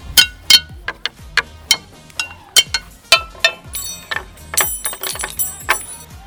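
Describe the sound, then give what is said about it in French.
Pots and pans being struck with wooden sticks at an instrumentarium in a quick, irregular clatter of bright metallic clanks and clinks, some hits ringing briefly, loud and busy throughout with no voices. “Là, il y a euh, c'est, euh, des casseroles, des poêles.”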